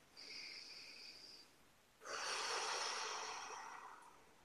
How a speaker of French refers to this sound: Alors, faire une respiration.